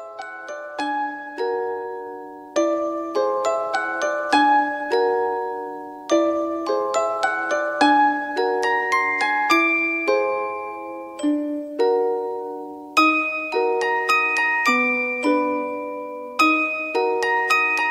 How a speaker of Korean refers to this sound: 이쯤에서 잠깐 노래 듣고 오겠습니다.